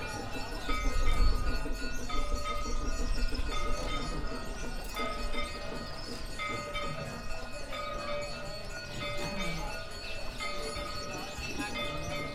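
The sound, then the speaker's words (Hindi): Temple bells ring steadily throughout for prayer at a temple, their overlapping metallic tones hanging in the air amid a busy, jangling din, with faint murmuring voices in the background. “This temple pray. Yeah. Sound like bell sound.”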